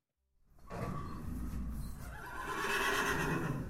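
A horse neighs loudly after a brief moment of silence, a drawn-out whinny lasting about three seconds with no one talking.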